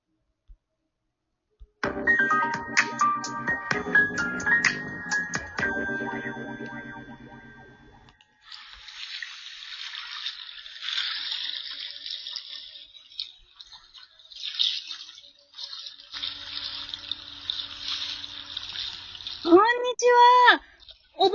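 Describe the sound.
A short melodic tune opens, then steady sea waves wash and surge for several seconds, a soft continuous rushing that swells and ebbs, before a voice briefly starts at the end.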